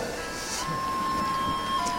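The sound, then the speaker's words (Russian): An electronic melody announcing the Sabbath sounds over Jerusalem on a Friday afternoon, a long sustained tone ringing out across a quiet, faintly humming street background with very few cars. “В пятницу после обеда город пустеет, очень мало машин. Вся суета постепенно замирает. Слышится мелодия.”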